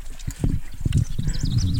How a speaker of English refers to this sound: hey guys, we walked up to this pen area where the chickens and the pigs were.